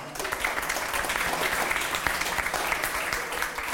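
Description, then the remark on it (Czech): An audience claps steadily, a dense crackle of many hands at an even level for a few seconds, with no one speaking over it. “Oni už ti předtím tleskali přirozeně.”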